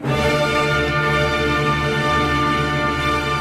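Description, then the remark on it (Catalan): A full orchestra sounds loud, sustained chords at the opening of Mozart's Don Giovanni overture, a dense, dark and solemn wall of strings and brass held steady with no voices. “De tal manera que si un escolta, per exemple, que l'hem posat aquí mil vegades, però crec que és una música que tothom coneix, que és l'obertura del Don Giovanni, que sona així...”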